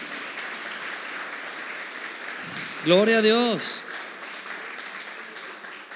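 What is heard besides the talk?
audience applause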